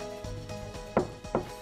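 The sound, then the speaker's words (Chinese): Knocking on the boss's door while bringing coffee: a few faint taps, then two louder, sharp wooden knocks about a third of a second apart, with no voices. “我的服装仪容也没问题，很好，可以敲门了。”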